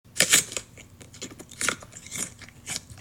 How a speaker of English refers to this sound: I munched on an apple and peanut butter.